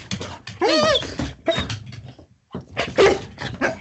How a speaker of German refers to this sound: Jawohl, jetzt hat sie Wuff gesagt.